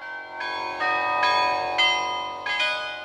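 The bells of a carillon are played by a bell player, ringing out in succession, each struck note overlapping the lingering hum of the last, forming a slow melodic sequence of bright, resonant tones with no voices present.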